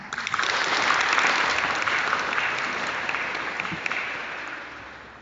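Sustained audience applause welcoming a guest speaker at a psychology school event in Xinyu, Jiangxi, China, with dense, crackly clapping that holds steady for several seconds, then gradually thins and softens toward the end. No one speaks over it.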